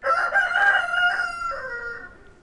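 A rooster crows once, a loud cock-a-doodle-doo with a strained harmonic tone that rises, holds, then trails off and fades by the end.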